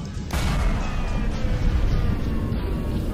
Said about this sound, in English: It set off with a whoosh, a thump, and a great big thump.